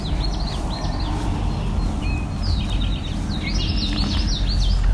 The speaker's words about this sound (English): Drink tea, part of the drink your tea, right there, eastern towhee.